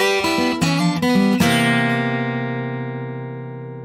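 The close of an R&B pop song: a few quick melodic notes, then a final sustained chord that rings out and slowly fades, with no singing or talking.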